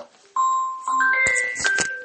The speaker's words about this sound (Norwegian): Ja, det kommer litt telefoner innimellom her, men det får bare våge seg.